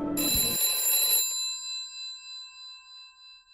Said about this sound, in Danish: Men pludselig, så ringede telefonen.